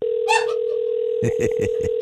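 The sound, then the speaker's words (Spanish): A telephone call being dialed to the Versailles Cuban restaurant in Miami: a steady, unbroken dial tone hums throughout, interrupted by a short burst of clicks and a rapid cluster of keypad presses as a number is dialed. No one speaks. “Estamos llamando al restaurante cubano más famoso del mundo, el Versailles en Miami”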